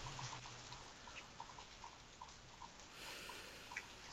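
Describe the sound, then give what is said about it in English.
Soft, steady patter like light rain, made by a group imitating rainfall: a low hiss with scattered small drip-like taps, quiet and continuous throughout, no talking. “no, but my second favorite sound is rain. So here, let's all have a moment of silence and we can recreate that sound.”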